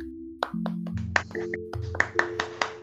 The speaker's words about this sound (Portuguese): Palmas, por favor.